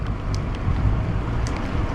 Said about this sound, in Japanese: 主にですね走りながら喋、えー、りますのでえー、こう車の音とかですねバイクの音とか、えー、入ってしまうんですけども、えー、そちらご了承をお願いいたします